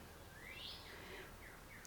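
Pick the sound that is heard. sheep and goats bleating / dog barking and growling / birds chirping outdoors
birds chirping outdoors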